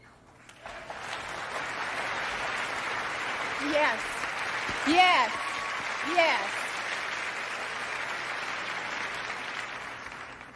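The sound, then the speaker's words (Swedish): Steady, dense applause from a large audience at the Oscars awards ceremony fills the whole stretch, loud and continuous, while a voice calls out briefly three times over the clapping. “Hon eh, lyfte fram den där trots att den inte var nominerad och fick eh, visst gehör från publiken på Oscarsgalan.”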